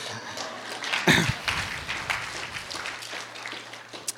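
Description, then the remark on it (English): An audience breaks into hand clapping, a dense, steady patter of many overlapping claps that swells sharply after a second and then holds at a lively, even level to the end. “Yeah, I think that deserved a hand clap.”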